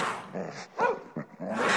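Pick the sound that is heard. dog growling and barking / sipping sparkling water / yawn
dog growling and barking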